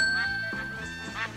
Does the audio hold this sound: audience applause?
no